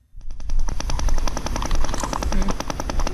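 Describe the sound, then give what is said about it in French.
An eel releasing gas bubbles from its swim bladder, passed through its esophagus and out of its mouth, makes a loud, rapid-fire underwater rattle of popping pulses that runs steadily for about three seconds, with no talking. “Ah, Alors, elle libère des bulles de gaz de sa vessie natatoire qu'elle fait transiter par l'ésophage.”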